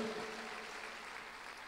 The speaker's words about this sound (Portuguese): Quantos podem aplaudir o Senhor aqui?